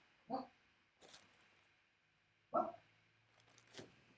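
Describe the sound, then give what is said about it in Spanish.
A dog barks twice, short sharp woofs spaced a couple of seconds apart, with faint brief rustling noises in between and no talking. “Un segundo, a ver si se calla el perro.”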